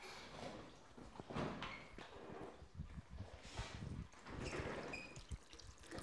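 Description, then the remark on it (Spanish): Water trickles and flows steadily throughout, with small drips and splashes scattered through a soft, continuous wash. It is fairly quiet, and no one speaks. “Ahora los vamos a dejar con un fondo de agua para que se relajen.”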